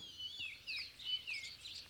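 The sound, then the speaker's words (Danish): Several birds chirp and tweet continuously in high, bright bursts, a busy overlapping chorus with no voices. “Det er fuglene, de ligner ikke ligefrem dinosaurer, vel?”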